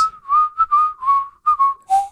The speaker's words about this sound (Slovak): ja keď som sem prišiel, tak ty si si pískal Vianočnú no. pesničku. To úplne si ma navodil do tej eufórie a do, do tých pocitov Vianoc.